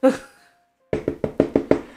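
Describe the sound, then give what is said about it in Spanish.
A brief vocal sound, a pause, then six quick, evenly spaced, loud knocks on a door, each a sharp solid thud, as someone outside demands that the door be opened. “Abra la puerta. Se nos debe tres meses.”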